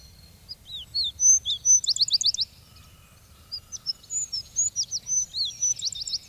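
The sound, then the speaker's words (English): A wood sparrow sings two bright, clear bursts of quick, rising and falling whistled notes, separated by a short pause, over a faint low outdoor rumble. “He prefers remote, bushy, heathery fields, where his song is one of the sweetest to be heard.”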